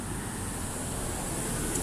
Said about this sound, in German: ja, interessant, im Hintergrund Busse und Zirpen und alles ja cool.